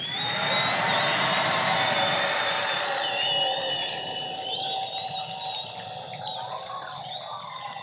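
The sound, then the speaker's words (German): A crowd yells together on a count of three, a loud, sustained roar of mixed voices meant to drown out a crowing rooster. It holds steady for a few seconds, then eases slightly but keeps going to the end. “Ihr müsst so laut sein, dass man dieses Hähnchen einfach nicht mehr hört, okay?”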